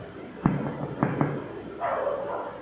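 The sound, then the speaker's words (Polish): A dog barks two blocks away, three short muffled barks followed by a longer drawn-out bark, faint against a quiet background with no one talking. “Pies się odzywa dwa bloki dalej.”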